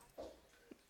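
A pet dog gives a quick bark followed by a shorter, softer second yelp, both faint against a quiet background.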